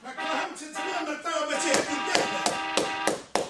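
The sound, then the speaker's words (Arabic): A series of sharp, loud knocks on a wooden door from someone outside wanting it opened, coming in uneven bursts, with voices talking in the background underneath the banging. “حلوا الباب برا”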